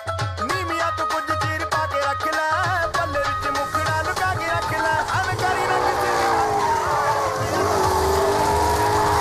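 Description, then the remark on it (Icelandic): A car engine revs hard and rises in pitch, with a loud, sustained roar and sliding tire noise as the car drifts sideways in a drifting competition, its tires spinning the whole time, continuous throughout. “aldrei kera beint, verða að vera á hlið með dekkin alveg í nýjandi spóli allan tíman Þannig að keppa mennum að keira skakt í rauninni Markmiðið er semst að bílinn keiri aldrei beint”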